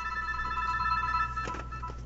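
A phone rings with an incoming call, a steady, buzzy electronic tone that holds for the full two seconds, sitting over a low background hum with no one talking.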